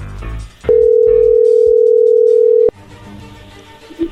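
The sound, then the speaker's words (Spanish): A telephone ringing tone on the line as a call is being dialed: one loud, steady, mid-pitched beep held for about two seconds, then cutting off to low background noise with a brief blip near the end. “vamos a llamarle a Emi Edgar”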